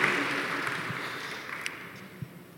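An audience applauding two people who led the weekend gathering, a dense, steady patter of many hands clapping that holds at a moderate level throughout, with no voices over it.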